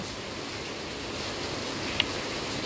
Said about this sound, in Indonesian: Di sini posisinya lagi hujan dan kedengeran gak ya suara hujannya? Harusnya sih iya ya.